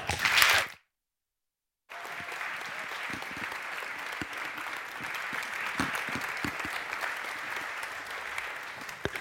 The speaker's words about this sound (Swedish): Vänligen ge dem en stor applåd.